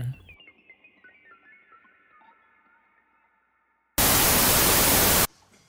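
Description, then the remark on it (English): A fading, ringing tone gives way to a sudden, loud burst of walkie-talkie static crackle that hisses for just over a second, then cuts off abruptly. “The crackle from a walkie talkie is never pleasant, but when you follow it with the sound of a digital ghost screaming at you from their own personal nether realm, it might as well be a gunshot.”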